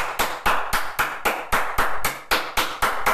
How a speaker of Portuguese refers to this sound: E eu ando a bater umas palmas, mas umas palmas, oh, malta, eu, eu parece que treinei desde, desde puto a bater palmas.